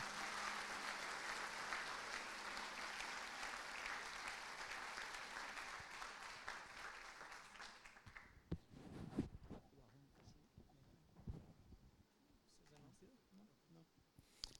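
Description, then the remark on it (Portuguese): An audience claps loudly in a dense, steady burst of applause for about eight seconds, then it cuts off and a voice starts speaking alone. “Uma salva de palmas para ele, gente.”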